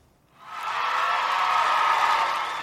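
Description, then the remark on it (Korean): A crowd roars into loud, sustained cheering after a brief silent moment, a dense wash of many voices holding steady at full volume for a couple of seconds; the cheering is part of a song. “이 환호성이 오늘 보물찾기에 보물은 이 환원성 소리입니다.”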